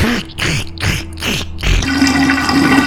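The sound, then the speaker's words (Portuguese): A voice imitates the wet, slurping sound of a woman sucking a man's neck like a vampire: four quick rhythmic pulses followed by a longer, sustained gurgling slurp, fairly loud, with no words spoken. “Cara, ela vai com a boca no pescoço dele, tipo uma vampira mesmo, e fica fazendo aquele som de”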